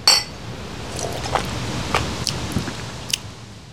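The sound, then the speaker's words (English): Glasses of elderberry mead clink together in a toast: a handful of bright, ringing taps scattered over a few seconds, with a quiet murmur underneath and no talking. “So cheers. let's cheers and let's see if this tastes any good, guys.”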